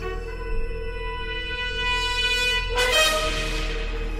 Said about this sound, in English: let's hear a little bit of the opening theme